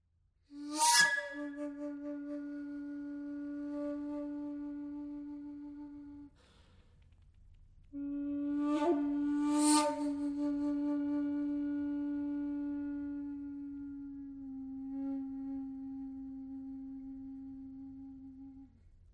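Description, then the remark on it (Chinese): A recorder played in a breathy style imitating a Japanese shakuhachi flute, a modern playing technique: two long sustained notes, each opening with a sharp chiff of breath noise, the second bending down slightly in pitch near its end. “那个就是尺八，完全就是尺八，好传神。”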